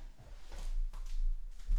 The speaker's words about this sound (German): ich klopfe dir so auf die Schulter, dass man es auf der Aufnahme hört